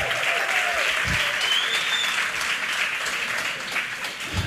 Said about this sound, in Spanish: Si alguien lo cree, dele aplauso al Señor. Celébrelo.